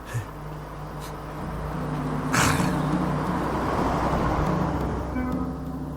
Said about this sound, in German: Ja, der Wagen kommt näher.